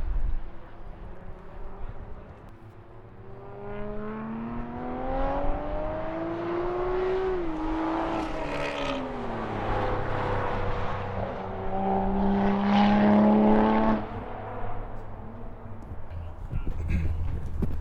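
Cars race around the Mantorp Park track during a Nordic Time Attack trackday event, their engines roaring and rising in pitch as they accelerate past, with a steady background drone of more traffic on the circuit. Two distinct passes stand out.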